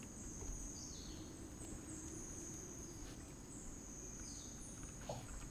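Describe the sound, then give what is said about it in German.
Faint bird chirps come and go over a quiet outdoor ambience in nature by a hut, with a steady high-pitched insect-like drone and a soft low rumble of wind throughout. “Es ist hier wunderschön in der Natur und Sie merken ja schon, diese frische Luft und die Vögel”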